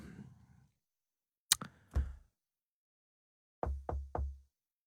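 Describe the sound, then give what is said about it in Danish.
Solid knocks on wood: two spaced raps, a short pause, then three quicker knocks in a row, after a brief low murmur at the start. “Banke, banke på.”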